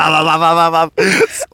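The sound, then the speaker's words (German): A single voice imitates the wingbeats of a pigeon flying in circles around a bedroom and banging into things: a long, steady droning tone, then after a brief pause a short rough burst and a breathy hiss, fairly loud. “Eine Taubenflügelschlag, sie fliegt so kreisig, ballert so gegen alle Sachen gegen.”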